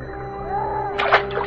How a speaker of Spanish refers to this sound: En un siniestro y oscuro pantano llamado el Bayú del Diablo había un viejo barco de río. Una noche, alguien se acercó a la borda del barco y silenciosamente dejó caer una botella en la cenagosa agua del pantano.